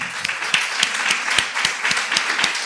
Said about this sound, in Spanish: ¿De quién estamos, hablando? Eh, estamos hablando de, de Gianni Dalfiume, señor. Un aplauso para Gianni.